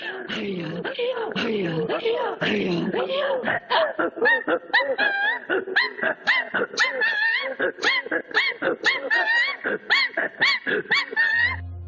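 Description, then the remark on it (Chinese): Evenki throat singing, the Evenki people's distinctive guttural vocal technique, in the theme song of a large dance drama. It mimics the calls of grouse and cranes on the mountains: a steady, rhythmic run of short, breathy guttural pulses. The syllables shift between low growls and higher, yelping tones, loud and continuous throughout. “那段啊啊咿啊啊的声音，其实就是鄂温克人特有的喉音发声法。他们在模仿的是山上的松鸡和仙鹤的叫声。”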